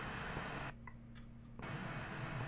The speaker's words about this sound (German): entsprechend die nächsthöhere Frequenz, was dann natürlich auch entsprechend mal rauschen kann.